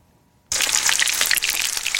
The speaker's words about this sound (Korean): 나한테 새우 두 마리 튀기는 소리. 그렇습니다. 닭을 한 마리 통째로 넣는 게 아니라 여러분 지금부터 상상하겠습니다. 새우 두 마리를 집어넣습니다.